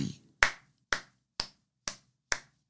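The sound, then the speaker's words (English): Five crisp hand claps in a slow, steady rhythm, fairly loud, each one ringing briefly before the next, with no talking. “Stop clapping.”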